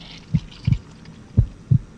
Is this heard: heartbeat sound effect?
yes